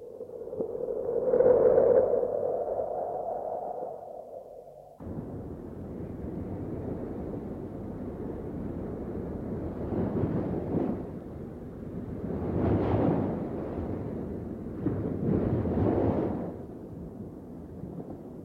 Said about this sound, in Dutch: En toch scheurde die rots.